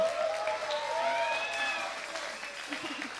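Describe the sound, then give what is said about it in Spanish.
Audience applause for the performing musicians: a dense, steady patter of many hands clapping, with a few high whistle-like tones riding over it, easing slightly in loudness toward the end. “Ya, un aplauso para todos, ya.”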